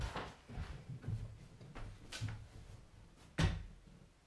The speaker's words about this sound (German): Das ist der Kühlschrank. Das kann sein. Mach ihn auf und zu.